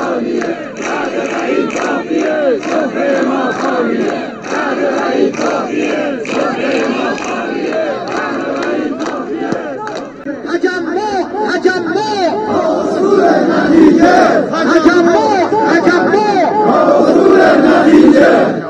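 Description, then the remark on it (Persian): A large crowd of retirees from across the country, protesting on a Sunday for the fifth time amid COVID conditions, chants slogans in unison, loud and continuous, with many voices blending into a dense roar that swells stronger toward the end. “صدایی رو که شنیدید از آن بازنشستگان سراسر کشور ما بوده که دیروز یکشنبه برای پنجمین بار در دل ترکات سریالی خودشون به ها اومدن در شرایط بس سخت و صعب کرونایی حاکم بر کشور”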